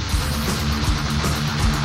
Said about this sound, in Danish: nu har jeg faktisk fundet en demo inde på deres hjemmeside, det er en øh, Boss guitarpedal, som hedder Metal Zone, som lyder sådan her.